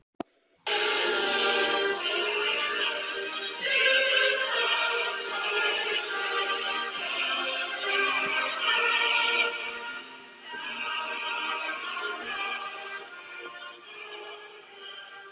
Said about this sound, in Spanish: Y lo que acaban de escuchar es parte del himno nacional de Alemania, llamado Der Standing German, y forma parte de la historia de Alemania, desde 1922.